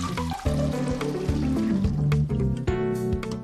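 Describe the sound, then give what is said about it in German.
Water drains steadily off a container of soaked, swollen soybeans, a continuous gurgling trickle with hollow, ringing tones and small splashes running throughout, with no talking. “Ich lasse das Wasser auch ab.”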